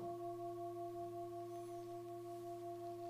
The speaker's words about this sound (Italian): Anche chi ha la cuffia è riuscito a sentire il suono della campana.